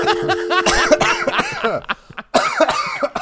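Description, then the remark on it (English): A loud coughing fit: a rapid string of harsh, raspy coughs broken by brief gasps and wheezy, laugh-like breaths, with a short pause before a final burst. “Oh, dude, I just started coughing.”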